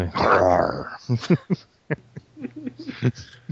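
A dog growls in a strained, drawn-out burst, followed by a series of short whimpers and yips, with a low hum underneath, from a TV commercial in which the dog supposedly rides in a car.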